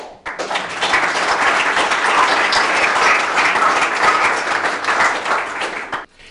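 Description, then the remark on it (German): An audience breaks into steady applause, a dense wash of many hands clapping at a fairly loud, even level for about six seconds before it quickly dies away, welcoming a panel guest, a state parliament member, at a discussion event on the Cum-Ex scandal. “Und natürlich einen Applaus.”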